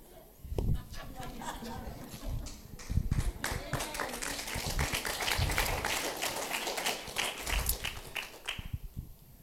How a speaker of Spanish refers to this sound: Sí, ve cuando los aplausos son así es porque See, the is like that, porque dio. It's because dio. It hit, hit.